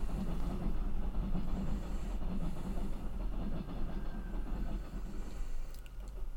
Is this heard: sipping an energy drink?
no